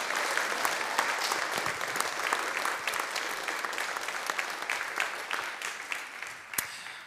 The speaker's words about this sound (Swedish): Det gänget, de är väl värda en liten applåd här som uppmuntran.